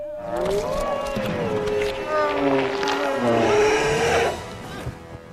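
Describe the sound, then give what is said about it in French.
A wolf howls in one long, wavering cry that bends up and down in pitch for several seconds before breaking off, loud with no talking over it. “Un hurlement. C'est le loup.”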